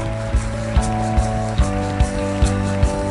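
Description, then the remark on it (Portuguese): An audience claps to the Lord in a steady rhythm, sharp beats landing roughly every half second over sustained, held musical chords, with no voices heard. “Aplauda ao Senhor.”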